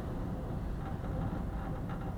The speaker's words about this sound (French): toujours le vent dans la chambre. La chambre en bois, la cabane en bois au Canada, à Igloolik, devant la banquise.